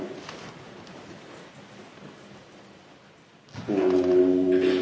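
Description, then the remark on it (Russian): After a few seconds of soft background murmur, a group of voices chanting the syllable Om rise together into a loud, sustained, steady hum that holds through to the end. “то есть, знаете, этот звук, он такой имеет паровую силу, такой, ну, как, как такая вибрация, очень сильная, громкая, пустая и совместная.”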